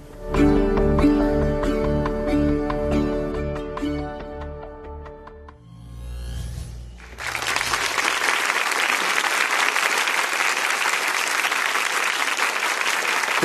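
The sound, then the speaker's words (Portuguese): A stretch of music gives way to loud, dense applause from a sizeable crowd, a steady wash of clapping that fills the last six seconds without letting up. “que aplaudir mesmo, porque é lindo o trabalho, mas ao mesmo tempo é de cortar o coração só imaginar essa possibilidade.”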